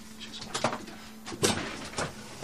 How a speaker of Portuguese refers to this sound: Agora desengatamos o carro, puxamos o travão de mão, bem puxado, abrimos a porta da frente.